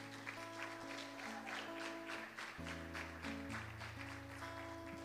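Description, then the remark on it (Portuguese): An audience at the end of a church service claps steadily for Jesus after a prayer, a dense, continuous patter of many hands lasting several seconds, while sustained keyboard chords hold underneath and shift pitch partway through. “Dê a salva de palmas a Jesus.”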